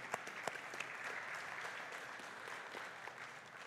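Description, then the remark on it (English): An audience applauding steadily to thank the praise team for their service that morning, many hands clapping in a dense, sustained patter at moderate volume with a few sharper claps standing out near the start. “can you please join me in thanking the praise team for their service to us this morning?”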